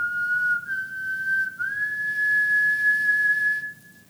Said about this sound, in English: She is the one whistling.